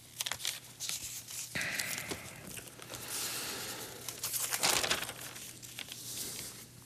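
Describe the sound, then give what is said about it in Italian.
Paper rustles and crinkles as newspaper pages are turned to page 20, a few broad crackling swishes, with a louder crisp flap near the end and no talking. “Andiamo a pagina 20.”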